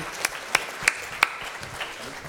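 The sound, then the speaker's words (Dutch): Brief, sparse applause welcoming first-time guests at a church service on a sunny late-summer morning: a few sharp, bright handclaps ring out at irregular intervals, followed by softer scattered claps fading away, with no talking over them. “Kijk, applaus.”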